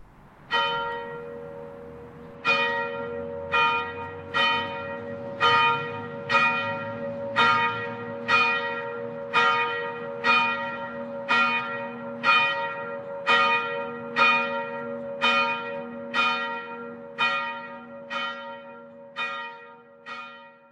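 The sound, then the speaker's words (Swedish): A church bell in the bell tower at Åryd, inaugurated in 1954, tolls in a steady, unhurried rhythm, roughly seventeen strikes about a second apart, each leaving a long resonant hum that carries into the next. No voices are present. “Olsson bekostade också den nuvarande klockstapeln som invigdes 1954, liksom klockan som hörde till.”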